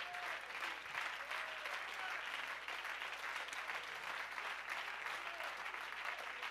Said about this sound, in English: Come on, clap your hands unto the Lord and give him praise.